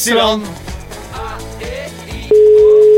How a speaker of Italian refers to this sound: Terzo squillo andato.